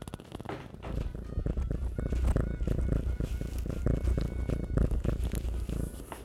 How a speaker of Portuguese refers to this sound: Vocês conseguiram ouvir isso? É muito ronrono. Essa gata é muito ronronenta.